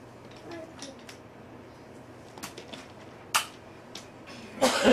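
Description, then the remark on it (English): A man sneezes and coughs: a few sharp, breathy bursts, the loudest and longest coming right at the end, over a faint steady background hum. “He gets concerned when I sneeze and cough.”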